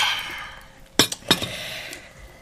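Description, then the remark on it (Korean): Glasses of makgeolli clink together in a toast: two bright ringing taps about a third of a second apart, with a couple of faint follow-up touches, over a quiet background hiss. “막걸리도 준비 완료다. 자, 짠.”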